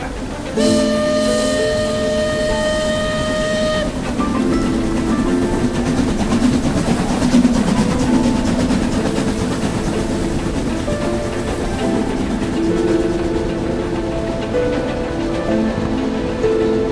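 A train horn sounds briefly, then a moving train rumbles steadily on the rails at night, a loud, continuous clattering roar with a hissing, rain-like wash running throughout.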